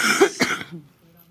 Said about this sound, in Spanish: Deja de estar tosiendo,